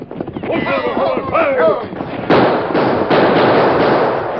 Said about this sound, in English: Get away! Back off the boat and keep your eyes on all sides. Keep shooting hard so as we drop anyone that shows himself. Keep shooting, boys!